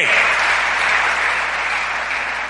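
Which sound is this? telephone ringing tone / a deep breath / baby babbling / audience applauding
audience applauding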